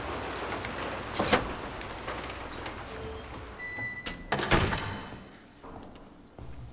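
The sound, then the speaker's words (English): Steady rain hisses across the whole stretch, with a couple of louder clattering knocks partway through before the downpour thins briefly near the end. No one speaks. “So I could tell you it's raining and then not believe me?”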